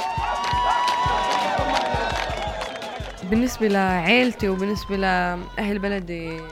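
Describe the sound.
Fans cheer loudly from a dense crowd at a racing event, with a wash of noise and scattered sharp claps, then excited voices rise in whoops and shouts.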